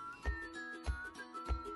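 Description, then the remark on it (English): Wind whistles through trees in a garden in a thin, steady high tone, broken by soft, regular gusts that thump and rush about every half second. The sound is faint and no one speaks. “We sat in her garden to talk, so I hope you don't mind the chickens and the ducks and the wind whistling through the trees interrupting our chat a little bit, but I wanted you to get a sense of just how magical this place is.”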